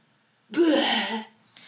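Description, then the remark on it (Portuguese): A voice makes a single breathy, swelling vocal burst imitating a brain expanding, not vomiting, fairly loud and lasting under a second, then trailing off into a faint breath. “Isso foi um barulho de cérebro expandindo e não de vômito”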